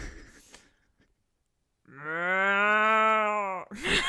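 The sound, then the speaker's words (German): A person imitates a cow, the first of a series of animal imitations, with one long, steady moo lasting nearly two seconds, fairly loud, after a brief pause and some faint breathy sounds, then a quick noisy burst at the end. “Dann fang am besten mit der Kuh, mit der Kuh an.”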